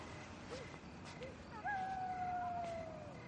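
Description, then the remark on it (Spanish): A pack of wolves howling in a ravine: a couple of faint short yips, then one long, steady howl that slowly sinks in pitch over a soft background hiss. “Hay una manada de lobos en el barranco.”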